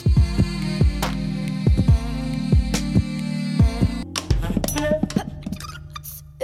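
A music track plays on Radio Revolt, the student radio station in Trondheim, with a steady thumping beat under sustained, humming synth chords; about two-thirds through, the arrangement shifts to sparser, clicky percussion and brighter tones.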